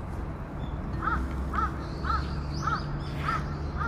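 bird, crow cawing

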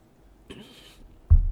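food or drink, sipping coffee

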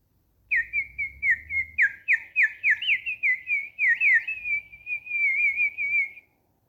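bird, birds singing

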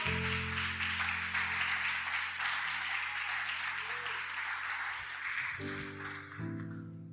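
crowd, audience applauding

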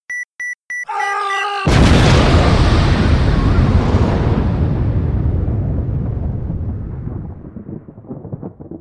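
sound effect, explosion sound effect

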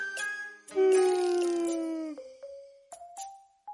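human body sound, big yawn

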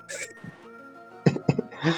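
human body sound, man coughing

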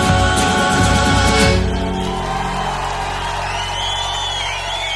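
crowd, audience applause and cheering

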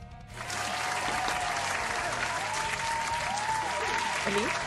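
sound effect, applause sound effect

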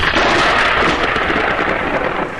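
nature, thunder

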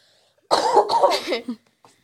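human body sound, cough

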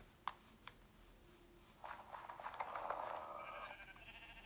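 sound effect, video game sheep bleating

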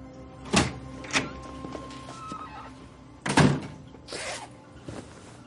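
household object, bathroom door being shut

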